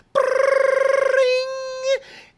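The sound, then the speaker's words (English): A single voice mimics an old-style rotary phone ringing, as in a children's TV sketch with two Martians: a rapid trilling brrring for about a second, sliding into a sustained tone, loud, with nothing else around it. “These two Martians would be next to the old style rotary phone, and it would ring.”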